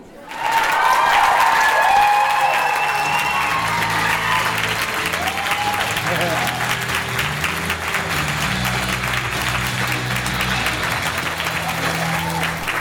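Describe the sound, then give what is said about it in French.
A large convention audience breaks into sustained, loud applause as a panelist arrives for a fan panel: dense clapping that swells immediately and holds steady, with scattered cheers and murmuring voices mixed in throughout. “Marc qui arrive euh, sous un tonnerre d'applaudissements.”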